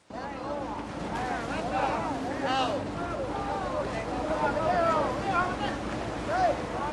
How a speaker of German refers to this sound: So hört es sich an, wenn an der Südspitze Spaniens die Thunfische kommen. Aufregung auf den Fischerbooten.